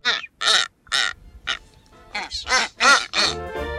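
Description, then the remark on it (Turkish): A blue-footed booby gives a rapid series of about eight loud, harsh honking calls, unaccompanied, with short gaps between the nasal squawks. “Mavi ayaklı sümsük kuşları Pasifik Okyanusu'nda Kaliforniya'dan Peru'ya kadar olan bölgede yaşar.”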